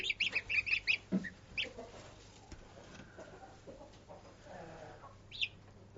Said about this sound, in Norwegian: Det er ikke mye som er søtere enn en liten gåsekylling, altså. De er kjempefine.